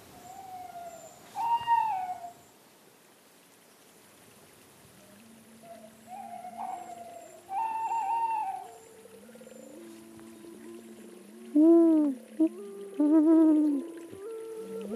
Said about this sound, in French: Ça c'est la, la hulotte, elle fait ça.